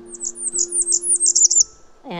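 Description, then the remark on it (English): A Blackburnian warbler calls on a hiking trail with a quick series of very high, thin, wiry notes that speed up over about a second and a half, clear above a low steady hum, before a voice briefly cuts in. “And then we were about to exit the trail, and then he heard the call”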